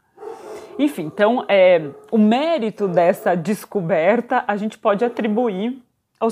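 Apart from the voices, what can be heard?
dog barking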